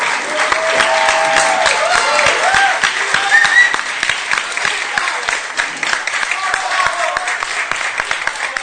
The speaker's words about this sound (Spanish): Los chicos de Malafaca, un aplauso, por favor. Un aplauso, por favor.